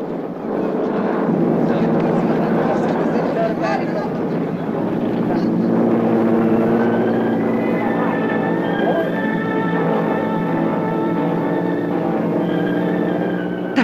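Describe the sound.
A loud, steady airplane engine drone fills the whole stretch, rumbling continuously as if passing overhead, with indistinct voices murmuring underneath.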